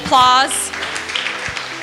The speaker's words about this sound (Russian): Вы можете подарить им аплодисменты.